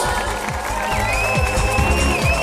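A burst of dense, steady applause fills the whole stretch, loud and continuous, with some high whistling tones riding over the clapping and no talking.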